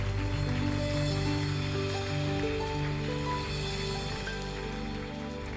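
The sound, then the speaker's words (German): Sustained applause from an audience, given for Jesus and all who were brave: a dense, steady wash of many hands clapping that holds loud and even throughout, with no voices breaking through. “Lass uns mal Jesus und allen Mutigen einfach einen Applaus geben.”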